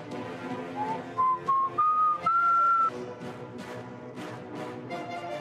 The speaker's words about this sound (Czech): tak si opřu ten stůl a začnu mé pískat prostě.